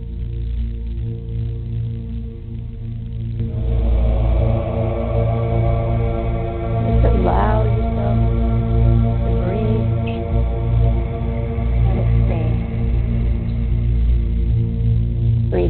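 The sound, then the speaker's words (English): A slow meditation piece built on a deep, steady drone, with a gong swelling in after a few seconds and its shimmering, wavering overtones ringing on continuously. No voices are heard. “Each time you hear the breath and the gong, you allow yourself to expand.”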